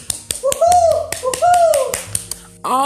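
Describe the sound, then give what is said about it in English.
A few people clap in quick, uneven bursts of sharp slaps for the speaker's eldest child and mother in the morning, while voices call out over them in rising, excited tones. “Clap it up, clap it up for my chillin' and my mama this morning.”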